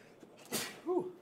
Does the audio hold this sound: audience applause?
no